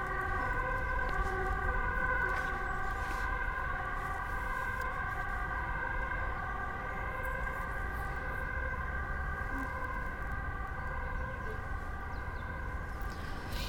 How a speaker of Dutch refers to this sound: Ja, komt inmiddels een, ambulance aan. Dus we wachten heel eventjes voordat jullie straks ons niet meer goed horen.